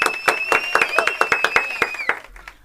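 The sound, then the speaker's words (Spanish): Steady, rhythmic studio applause welcoming a guest on a radio programme: about a dozen sharp claps in quick succession, with a thin high whistle-like tone running over them before the clapping stops. “Bueno, ¿escuchaste esos aplausos?”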